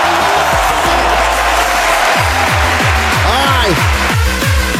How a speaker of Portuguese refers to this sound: Ótimo sábado, galera! Uou, senhoras e senhores! Cadê os aplausos daqui? É!